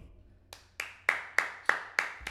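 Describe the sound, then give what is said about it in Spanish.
Seven sharp, evenly spaced claps in a steady rhythm, each louder than the last at first, with a bright ringing snap. No one speaks. “Un fucking fuerte aplauso”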